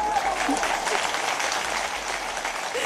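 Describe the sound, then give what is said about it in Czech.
A sustained burst of applause played as a sound effect, many hands clapping in a dense, steady patter for about three seconds at a fairly loud, even level, with no one speaking over it. “My máme dokonce potlesk.”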